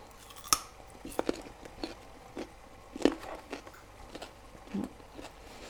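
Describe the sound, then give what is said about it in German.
While cooking, someone bites into a raw carrot with a sharp crack, then chews in a string of crisp, uneven crunches, with a couple of louder bites standing out against a quiet background. “Ich muss mal in die Karotte beißen.”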